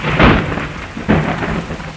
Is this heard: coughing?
no